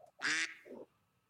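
A duck gives a loud, raspy quack followed by a shorter, softer one, heard alone with no talking.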